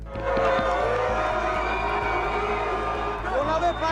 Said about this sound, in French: Résultat, le président français a été accueilli par un concert de casseroles, de huées et d'invectives.